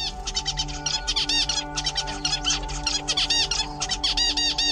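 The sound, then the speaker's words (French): A young songbird sings a variant of its tutor father's song, not an exact copy, in a busy, continuous stream of rapid chirps, trills and rising whistled notes, over a faint steady low hum, with no voices. “Ce n'est pas une copie exacte de la chanson du professeur Papa, mais une variante de l'original.”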